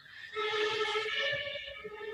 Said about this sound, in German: Das ist da halt der Krankenwagen.